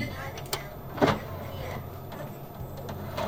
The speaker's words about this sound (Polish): Ale dobrze, połóżmy jeszcze na chwilę ten mikrofon na komputerze. O, Posłuchajmy tego wspaniałego dźwięku. Tak. I na przykład teraz mogę otworzyć szufladkę CD.